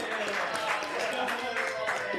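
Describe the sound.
An audience claps for a child in a steady, dense patter that holds at an even level throughout, with some voices mixed in underneath.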